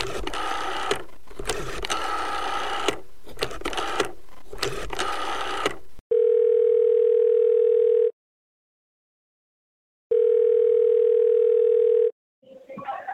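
A phone's ringback tone while placing a call: two steady, loud, droning beeps, each lasting about two seconds with a pause between, after several seconds of muffled rustling and handling noise.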